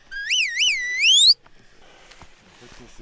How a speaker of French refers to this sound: Du coup, je me suis mis au sifflet pour donner les ordres. C'est un petit sifflet que tu as autour du cou en, cuivre. En laiton.